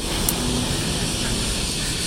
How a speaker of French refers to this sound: Putain, mais ils s'y mettent tous aujourd'hui, les avions, les machins, les trucs. C'est de la folie.